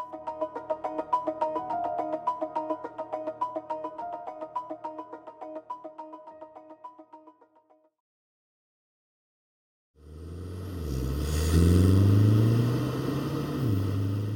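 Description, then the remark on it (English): A tinkling, rhythmic music passage fades out, followed by two seconds of silence, then a petrol car engine roars to life and revs loudly with rising and falling pitch. “soundtrack to motoring used to be created by the vroom of the petrol engine and the blaring car radio as you were driving down the road.”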